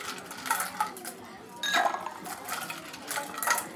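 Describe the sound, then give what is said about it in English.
Ice cubes clink and rattle into a cocktail glass holding gin and freshly squeezed lemon juice, in several quick, bright bursts, the loudest around the middle, with no voices. “I'm now going to put ice in there.”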